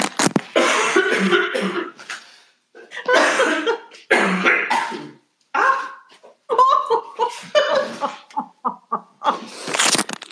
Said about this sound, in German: Ich muss mal eben husten. Moment.